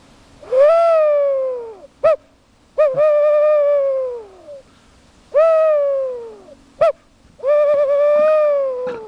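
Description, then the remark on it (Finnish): Four drawn-out, slightly falling hoots blown on a bird call in imitation of a tawny owl, fairly loud, with short clicks between them and no talking. “Tässä on muuten niin kuumea ääni, että mä voisin kokeilla tuota lehtopöllöä.”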